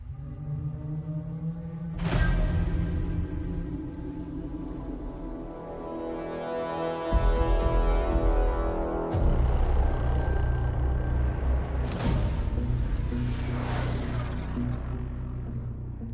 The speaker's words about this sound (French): puisqu'on revient à Star Wars avec The Mandalorian, euh, la série de John Favreau, eh disponible sur Disney, donc pas disponible en France. Enfin, c'est pas grave, on écoute la bande-annonce on en parle quand même.